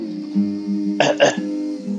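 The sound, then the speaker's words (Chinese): A voice clears its throat in two quick, rough bursts before addressing an audience from a stage, raspy and fairly loud, riding on a low steady hum of voice before and after. “他像模像样的清了清嗓子，对台下的观众说：“ 大家好，我是雪宝，一头快乐的驯鹿，请允许我隆重的请出我的好朋友雪人斯特。”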